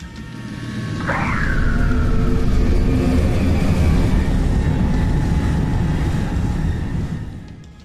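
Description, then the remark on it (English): A vacuum system starts up with a rising whine, then settles into a loud, steady mechanical roar and hum that runs for several seconds before tapering off. No one speaks. “I'll initiate the vacuum system.”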